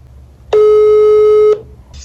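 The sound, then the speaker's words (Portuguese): A single loud, steady electronic ringing tone sounds for about a second, like an outgoing video call ringing, then cuts off, leaving low background hum and a faint high blip. “Vamos ligar para ele em vídeo.”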